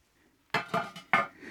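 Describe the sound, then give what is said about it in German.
Ceramic roof tiles of a velvety, rough material clink together, four bright, hard knocks in quick succession after a brief quiet moment, with no talking. “Das samtraue Material der Ziegel, sein Klang”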